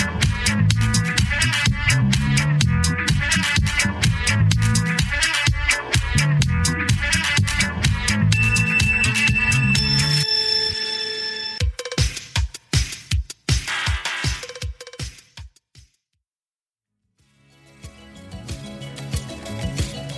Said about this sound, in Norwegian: Roll jingle.